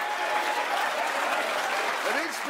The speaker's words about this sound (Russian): Сейчас не все, наверное, поняли, почему они аплодируют.